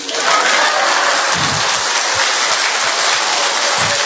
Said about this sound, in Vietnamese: vỗ tay đi